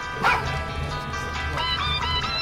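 A cell phone ringtone sounds, made of short, bright, yelping bark-like bursts repeating every half second or so over a steady tonal hum, fairly loud with no talking.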